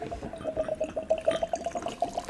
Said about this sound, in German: So, und nun gießen wir das geköchelte Notenpüree in diesen Trichter.